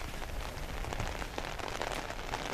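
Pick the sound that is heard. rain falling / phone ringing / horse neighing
rain falling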